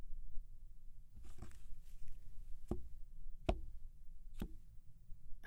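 Tarot cards gathered into a single pile on a table for a love reading: a light shuffling rustle followed by four crisp taps spaced about a second apart, with no one talking.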